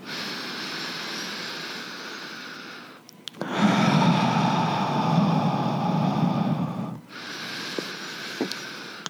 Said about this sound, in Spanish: Respira conmigo aquí, por favor. De una manera que sea pausada, tranquila y a tu propio ritmo. No hay ninguna manera bien, no hay ninguna manera correcta o incorrecta de hacerla. Simplemente respira pausado y tranquilo y eso va a funcionar.